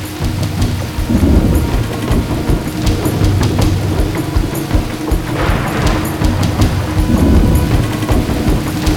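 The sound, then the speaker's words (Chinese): A thunderstorm with deep, rolling thunder rumbling continuously beneath a steady roar of heavy rain, loud throughout with swelling peaks of rumble and no voices. “就在这个时候，天空突然下起了大雷雨，轰隆隆的雷声与大雨让姐妹俩不得不找个地方躲雨。”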